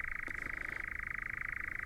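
A European nightjar churring: a continuous, steady mechanical trill held at one pitch, rapidly pulsing without a break, with a few faint clicks early on.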